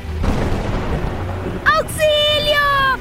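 A loud thunderclap opens into a deep, rolling rumble lasting over a second, followed by a high, wavering tonal wail that rises and falls above the fading storm.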